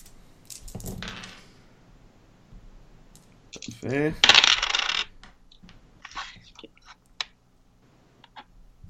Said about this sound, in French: Simonac, tu sais que tu pas rouler des dés 20?